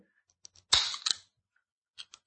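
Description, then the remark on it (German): A can is cracked open: a few small metallic clicks, then a sharp pop and a burst of fizzing hiss lasting about half a second, followed by two faint clicks. “So richtig schön oldschool, wie früher mit den Cola-Dosen, ganz großartig.”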